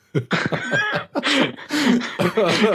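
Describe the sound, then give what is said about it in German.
A voice imitates coughing in a rapid series of short, breathy bursts, some tinged with laughter, filling the whole moment with no pause. “hust, hust, hust.”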